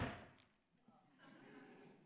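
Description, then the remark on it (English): One loud knock on wood lands at the very start and fades quickly, followed by faint murmuring voices in the background. “You don't just knock once, you keep knocking.”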